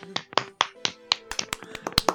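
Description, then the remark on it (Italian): A brief round of sparse applause from just a few people, sharp close-up claps landing irregularly over a couple of seconds, with a faint steady hum underneath. “Un applauso la regia, per favore.”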